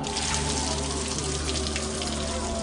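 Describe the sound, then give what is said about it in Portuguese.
A steady, full stream of water pours and splashes continuously, loud, with a faint low hum underneath and no voices: water drawn from a well near the gate of Bethlehem being poured out as an offering to God. “a derramou como uma oferta a Deus, o Senhor.”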